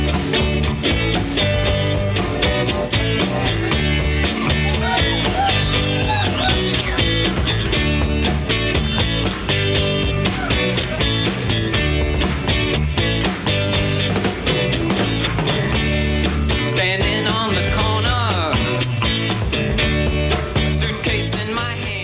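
A 1974 rock song recording plays loud and steady throughout, a full band with driving drums and guitars filling the mix, with no talking over it.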